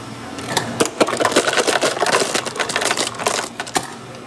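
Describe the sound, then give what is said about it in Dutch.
An ice dispenser rattles out a steady stream of ice cubes for a drink, a dense clatter of hard clicks and knocks that continues for several seconds, fairly loud, with no voices. “Dat is het geluid van ijsblokjes met een lekkere pip extra.”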